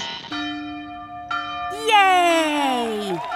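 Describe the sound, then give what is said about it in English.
Church bells ring out in celebration of the announcement that the polio vaccine is safe and effective, several strikes overlapping into a loud, sustained wash of ringing tones that shimmer and slowly sag in pitch toward the end. “Church bells will ring in celebration as people burst into tears and hug each other.”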